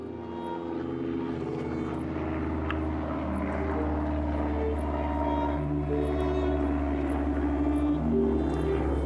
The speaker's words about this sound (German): Ach, da passt es ganz gut auf der Aufnahme, die du mir geschickt hast, fliegt laut ein Flugzeug.